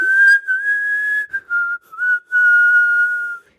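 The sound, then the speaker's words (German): Whistling done while breathing in: a steady, fairly high-pitched tone held for about three seconds, broken by a few short gaps, loud with no talking. “Genau, und einatmet pfeifen.”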